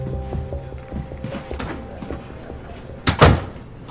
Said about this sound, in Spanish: Cierra la puerta.